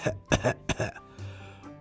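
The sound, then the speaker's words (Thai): A voice imitates Godi the turtle choking after swallowing a clear plastic bag it mistook for a jellyfish: a few strained, voiced retching heaves in quick succession, followed by a drawn-out, rasping gasp, moderately loud. “ที่ลอยอยู่ก็มีก็ดีนึกว่า ถุงพลาสติกใสใบหนึ่งเป็นแมงกะพรุนโกดีก็เลยงับเข้าให้ แล้วก็กลืนเข้าไป ทันใดนั้นเอโกดีสำรอกพยายามอ้าปากหายใจอย่างลำบาก”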